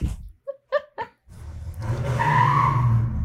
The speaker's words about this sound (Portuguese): Foi alguém, algum vizinho saiu arrancando. Meu, amiga, foi muito alto.